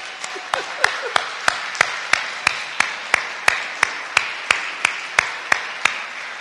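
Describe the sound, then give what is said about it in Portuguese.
A church audience applauds the birthday honoree, with a steady, loud rhythmic clap about three times a second standing out over a continuous wash of scattered clapping. No one speaks. “Por lo tanto, igreja, dê um aplauso ao cumpleañero, por favor.”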